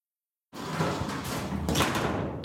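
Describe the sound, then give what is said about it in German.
The door of a warm, humid tropical orchid show house opens abruptly out of silence, followed by a steady, dense wash of noise that continues at a fairly loud, even level until the end. “Tür auf und es wird warm, feucht und immer grün.”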